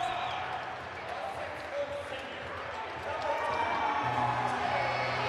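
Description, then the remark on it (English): The Marshfield crowd in a gym, with its student section in all-white t-shirts, comes to its feet and cheers steadily as their starting five are about to be announced, a dense wash of voices that swells louder partway through, with a low sustained hum underneath. “And the Marshfield crowd comes to its feet as their starting five are about to be announced.”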